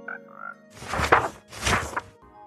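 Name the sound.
video game frog croaking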